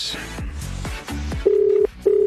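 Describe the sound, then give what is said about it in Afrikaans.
Two steady, low telephone tones sound in quick succession, each lasting under half a second, as a phone line rings out while a call is placed from a studio in Pretoria to a woman in Cape Town, following a brief swirl of sweeping sounds. “Okay, so ek gaan vir haar hierso op die lyn kry en dan hoor ons bietjie wat sy te sê het.”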